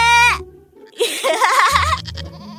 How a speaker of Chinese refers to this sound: 你们又上当了，这里没有狼，只有小羊。咩咩咩！